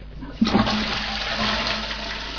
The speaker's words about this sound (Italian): ecco questo è quanto posso ah posso tirare lo sciacquone